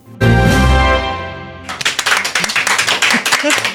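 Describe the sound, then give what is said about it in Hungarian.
A sustained musical chord rings out and fades, then a small group in a Klubrádió radio studio breaks into spontaneous applause that surprises the morning hosts, with loud, quick, uneven claps continuing to the end. “Így hangzik a Klubrádió reggeli műsorvezetőit is meglepő spontán tapsa stúdióban.”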